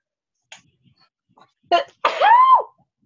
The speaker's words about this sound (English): I'm going to sneeze